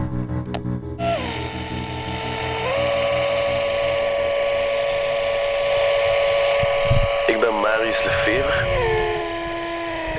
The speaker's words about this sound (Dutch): Ah, ook een heel toffe ontdekking is dat een transistorradiootje dat op een ventilator ligt, doet heel rare dingen.